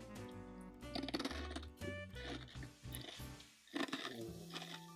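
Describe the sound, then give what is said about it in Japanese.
Someone crunches a hard snack, with clusters of crisp, brittle crunches in irregular bursts over a steady tonal background sound. “ASMR 兼ねてんの最近ね、あのー右奥歯の親知らずが生えてきてバリたいんで、こんな硬いお菓子食べれるか微よう。んですけど。それじゃあ、まあ、いただきます。”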